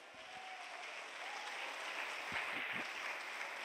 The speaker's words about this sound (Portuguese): Alguém pode levantar a mão para aplaudir bem forte.